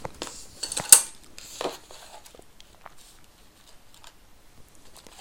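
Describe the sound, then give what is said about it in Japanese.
Someone stirs ramen noodles in a bowl with utensils, mixing them while eating: a cluster of light clinks and scrapes, one sharp knock, then the sounds fade into faint, sparse rustling. “よしちょっとこれは混ぜながら食べるかよいしょ”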